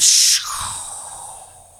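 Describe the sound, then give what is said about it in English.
A voice imitates a lightning strike hitting a room, with a sharp, loud burst of hissing breath that cracks out and then fades into a long, softer rushing tail. “almost like a bolt of lightning has uh, hit uh, your room.”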